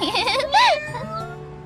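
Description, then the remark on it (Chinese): A cat named Milk, kept by Mary's family, meows twice in quick succession, the first call wavering and the second rising and falling in a higher, arched tone, followed by a faint, fading trail of sound. “哦，我认识这只猫，是玛丽家养的猫吧？”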